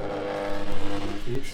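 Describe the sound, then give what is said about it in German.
A stand mixer's motor whirs into action in the background, its hum rising in loudness and pitch over the first second and holding a steady drone with a few uneven surges. “Ihr hört wahrscheinlich gerade die Küchenmaschine auch im Hintergrund.”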